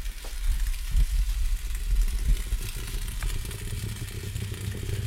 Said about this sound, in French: C'est un peu plus lent, c'est un peu plus je sais pas. Ça manque de passion. Ça manque de passion. Alors, le bruit du café sur euh, plaque vitrocéramique belge, ça ressemble à ça.